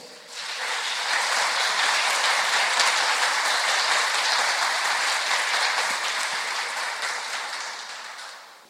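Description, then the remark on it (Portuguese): A large crowd applauds for the Lord, a steady, dense wash of clapping for several seconds that swells quickly, holds at full strength, then tapers off near the end. “Quero um aplauso para o Senhor.”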